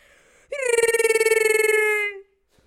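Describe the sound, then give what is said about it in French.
A person imitates the roar of Chewbacca, the Star Wars Wookiee, with one long, warbling, rising-then-falling vocal howl lasting under two seconds, loud and harmonically rich with a rapid fluttering quality, alone without speech. “Sais-tu faire le bruit de Chewbacca euh, Oui, un petit peu.”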